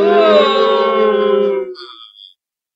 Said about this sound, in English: booing? Who's booing? Who would boo